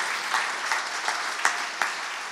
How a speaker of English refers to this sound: Could we give Joy, a round of applause. We Give all these guys a round of applause for their, their faithfulness.